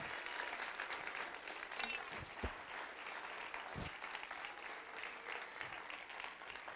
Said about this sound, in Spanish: ¿Verdad? Vamos a aplaudirle ese ser maravilloso.